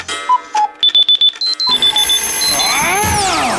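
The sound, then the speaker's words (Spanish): An electronic alarm clock, in a Melodía FM radio promo for its morning wake-up show Parece Mentira, beeps in quick, loud bursts, then gives way to a continuous warbling tone that sweeps downward and fades out. No one speaks. “Ups, di adiós a las alarmas.”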